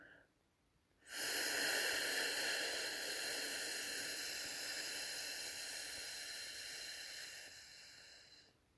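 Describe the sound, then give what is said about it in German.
A single long, steady exhale pushed out through the lips on an "ff" sound, a bright hissing breath lasting about seven and a half seconds and fading slightly toward the end. “Atme ganz bewusst ein paar Mal aus. Du kannst es auch mit einem Buchstaben verbinden, zum Beispiel auf F.”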